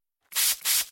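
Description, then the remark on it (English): Two quick hissing sprays in a row, each a short burst of fine airy mist from an Astepro Allergy nasal spray bottle being pumped, with no voices. “That's the sound of Astepro getting ready to work.”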